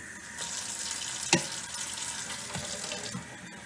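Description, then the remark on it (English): Water pours steadily into a tea kettle for coffee, a continuous splashing hiss with one sharp metallic clink early on. No one speaks. “I'm gonna put just a tiny bit of water.”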